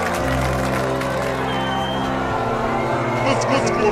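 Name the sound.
audience applause and cheering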